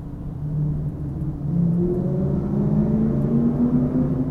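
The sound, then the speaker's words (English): A hotted-up car drag racing on a road revs and accelerates hard, its engine pitch climbing steadily over a deep, constant rumble, loud with no voices. “Okay, now that car's kind of dragging.”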